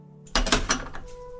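A metal door lock's thumb-turn is twisted shut: a short burst of scraping and a couple of sharp clicks close by, then a faint hum lingers. No one speaks.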